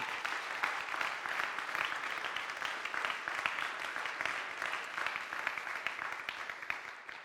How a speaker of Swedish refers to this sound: Vi kan väl ge dem en till en sån här varm applåd.